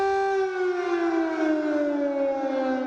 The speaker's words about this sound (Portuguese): O som da sirene ecoando pela Praça Maidan alertava sobre um novo ataque em Kiev.